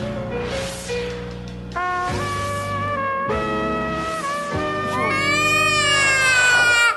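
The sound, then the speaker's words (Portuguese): A voice imitates crying with loud, drawn-out wails, four sobbing phrases in a row, the last rising into a high, quavering whine with no other talk. “Engole o choro.”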